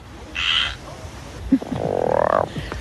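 tree frogs croaking

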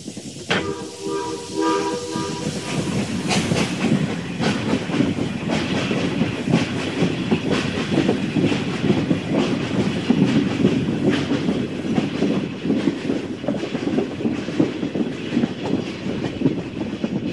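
train running on rails

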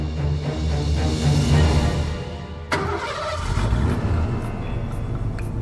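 car engine running

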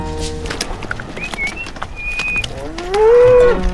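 dairy cow mooing

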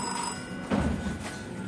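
telephone bell ringing

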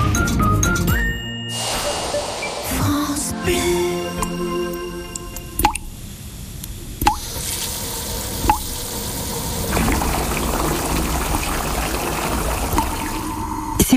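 water dripping

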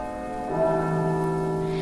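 carillon bells ringing

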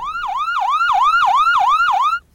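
ambulance siren

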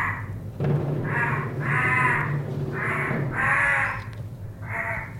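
crows cawing

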